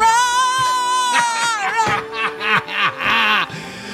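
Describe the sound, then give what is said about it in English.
Walter Jeffrey, a French bulldog, groans and grumbles in long, strained, wavering vocalizations, rising and falling with a whiny, almost human moan, broken by short snorty breaths near the end. “That's the Instagram account where you can find Walter the dog, who's who sounds like this.”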